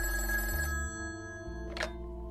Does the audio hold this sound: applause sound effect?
no